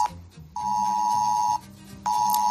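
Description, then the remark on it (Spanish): A mobile phone emergency alert tone blares in long, steady electronic pulses, roughly a second on and half a second off, loud, over a low background hum. It is sent to phones in the Cabanillas del Campo industrial estate area, Spain, during a lockdown order. “Trabajadores que, al igual que muchos habitantes de la zona, escucharon, como te decía, este pitido en sus teléfonos móviles.”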